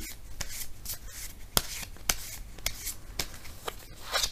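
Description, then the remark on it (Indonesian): Tarot cards being shuffled for a Gemini reading, with no one talking: a continuous papery swishing and rubbing, broken by several crisp, sharp card snaps at irregular intervals. “Kita bacakan sekarang kartu tarotnya untuk Gemini.”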